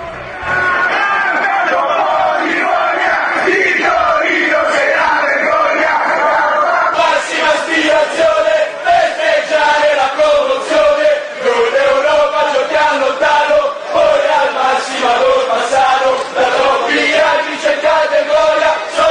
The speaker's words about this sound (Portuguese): A torcida do Juventus cantando contra a torcida do Torino.